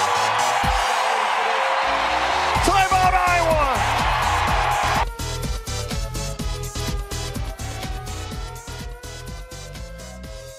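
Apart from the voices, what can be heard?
basketball arena crowd cheering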